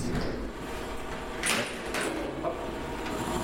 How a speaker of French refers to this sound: Bon, alors on va sortir du frigo là parce que je commence à être bleu. on va refermer la porte.